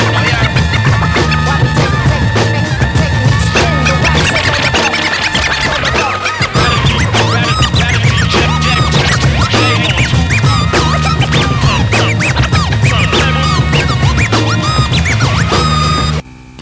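A band's music track plays loud and dense for about sixteen seconds, with a heavy low end, busy rhythmic texture and harsh scratchy upper layers, then cuts off abruptly.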